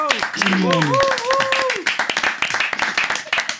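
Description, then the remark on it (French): A group of children from the CM1 and CM2 classes of la Marichère in Trélazé clap together on a radio programme in a steady patter of sharp, overlapping claps, with cheerful voices and a few rising calls over the applause at the start. “Eh bien, je pense qu'on peut vous applaudir.”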